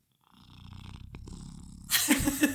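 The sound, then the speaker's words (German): A domestic cat that has just settled on a person's lap purrs, a steady low rumbling vibration lasting over a second, before loud rustling handling noise takes over at the end. “Oh, Katze ist gerade auf die Schoß. Hört mich die schnurren?”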